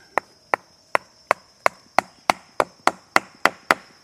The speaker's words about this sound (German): Neue Proben entnehmen – mit einem Holzklotz klopft der Forscher auf ein zylinderförmiges Instrument aus Metall, um es in die äußere Schicht des Baumstammes zu drücken.